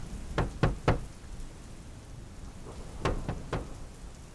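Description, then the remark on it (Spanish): Two rounds of three firm knocks on a wide, closed door, evenly spaced with a pause between the sets, over a steady background hiss like falling rain. No one speaks. “Ahora es cuando llamamos a la puerta.”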